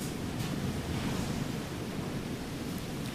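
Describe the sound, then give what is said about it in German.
Strong wind buffets the microphone in a continuous, loud roar with low rumbling gusts, resembling crashing surf; no one speaks. “Bei mir windet es auch extrem.”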